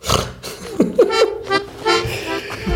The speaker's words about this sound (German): aber das ist jetzt voll laut, ähm, die, die, die Ziehharmonika. Und man hört nichts im Hintergrund.